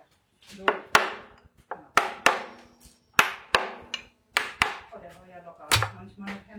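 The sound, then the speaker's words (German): A hammer knocks repeatedly against the side of a wooden whisky barrel to loosen the bung so it can be pulled out, sharp resonant thuds in an uneven rhythm, about a dozen strikes with short gaps between them. “So, seitlich gegenschlagen, damit ich den rausziehen kann, ne?”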